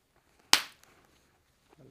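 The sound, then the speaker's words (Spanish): One sharp, loud hand clap made to synchronize two recordings, ringing briefly before fading into near silence, with a faint murmur creeping in at the very end. “Ya está grabando los dos, le vas a aplaudir para más o menos. Una, dos.”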